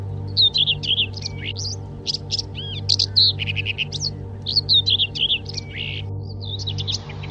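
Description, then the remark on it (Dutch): A small songbird sings a lively, continuous stream of high, rapid chirps and warbling trills, clear over a low, steady background hum, in the first weekend of February during unusually mild, frost-free weather. “En wat betekent dat nou voor dit vogeltje?”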